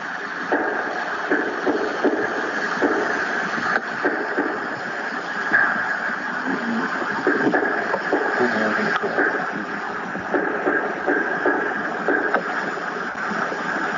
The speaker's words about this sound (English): That's a knocking sound.